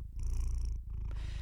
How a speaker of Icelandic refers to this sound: Það sem er hins vegar svakalega spennandi er að vísindamenn vita ekki enn hvernig kettir mala. Það er að segja hvað gerist í líkamannum á þeim þegar þeir mala.